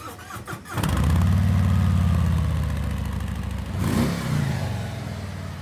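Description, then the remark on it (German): A Harley-Davidson motorcycle engine cranks briefly, fires up, and settles into a deep, loping idle, then gets one quick throttle rev before dropping back to a rumble. Loud, no voices. “Nicht jedes Motorrad klingt wie eine Harley”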